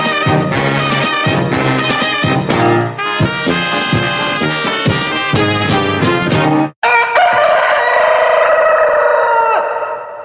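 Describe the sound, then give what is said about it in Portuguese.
A loud, upbeat football club anthem plays for several seconds, then cuts off abruptly, followed by a long rooster crow that trails away at the end. “Mas já falando de cara para não esquecer, toca o hino.”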